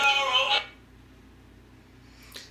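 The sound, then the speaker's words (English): A phone ringtone chimes out in a short, bright melodic burst for about half a second, then cuts off, leaving quiet background noise and a faint click near the end. “it's on. It's on vibrate. It's my actual volume.”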